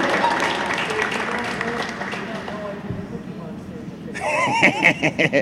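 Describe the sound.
A short round of applause from a small group, steady clapping for a few seconds, followed by a voice whooping and laughing over the last of the claps.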